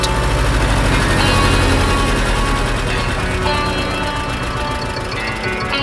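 A tractor engine runs steadily and loud, a dense low mechanical rumble with a rhythmic knocking chug that holds for the whole stretch without any voices.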